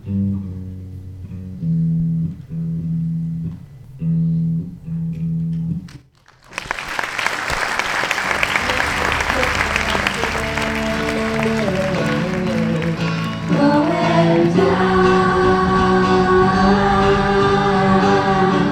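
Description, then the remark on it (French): A short phrase of repeated musical notes gives way to a large audience bursting into loud, sustained applause that fills the hall, while music keeps playing beneath the clapping, after a young actors' theatre show in the full great hall of the Maison du Peuple in Millau. “Puis après, seulement après, si vous le désirez, vraiment, si vous le voulez, vous pourrez applaudir.”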